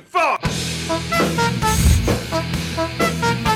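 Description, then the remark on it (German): Horns honk out a tune played as a horn tribute song: a rhythmic series of short, bright tonal blasts at shifting pitches over a steady low rumble, with no talking. “Connys Hupen Gedächtnissong.”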